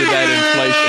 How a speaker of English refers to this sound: What was what that sound was, that? the, that was the burn alert, I guess. burn alert.